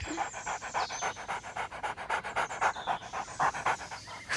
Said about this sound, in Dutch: Hé, wacht, is dat die hond? Ja. Hé, hey, Rex, hé. Hey. Kijk, hij likt mijn hand.